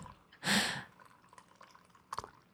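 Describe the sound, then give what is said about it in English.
Coffee pours in a short, loud gush, splashing and spilling over a cup, followed by quiet dribbles and a sharp drip or splat near the end. No voices are heard. “what if I- it's just spilling over his cup.”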